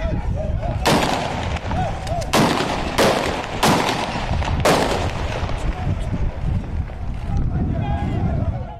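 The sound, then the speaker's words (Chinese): Loud, sharp gunshots on a street in Nigeria ring out one after another at irregular intervals over a constant clamor of shouting voices; after the last few shots, the noisy commotion continues on its own. “刚刚的枪声有没有让你觉得很害怕呢？这是奈及利亚这个国家最近街道上常常会出现的声音。”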